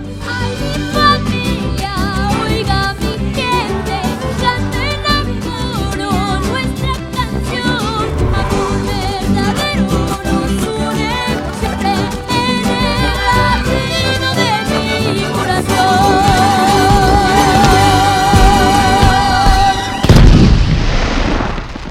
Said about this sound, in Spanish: …, tema que estábamos escuchando, forma parte de la banda sonora de la película Coco